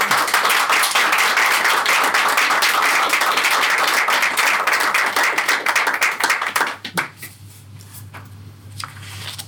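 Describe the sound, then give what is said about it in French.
Dense, sustained applause from a crowd in a courtroom at the close of a hearing fills the first seven seconds, then fades to scattered claps over a low steady hum. “Les applaudissements ont signé la levée de l'audience.”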